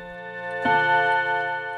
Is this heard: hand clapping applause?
no